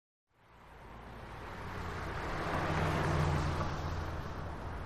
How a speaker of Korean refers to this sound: 스튜디오 건물만 덜렁있는 시외곽의 4차선 도로에는 트럭들이 쌩쌩 바람을 일으키며 달렸다.